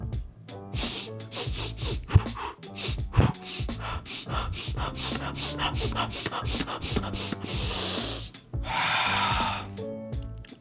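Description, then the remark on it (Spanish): Rapid, forceful breaths pumped in and out through the nose in a breathing exercise, a quick rhythmic series of sharp sniffing inhales and puffing exhales, loud, with a few longer breaths near the end. “Incantaciones que tienes que inhalar y exhalar súper rápido, rapidísimo.”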